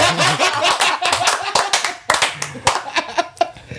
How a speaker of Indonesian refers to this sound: Tepuk tangan.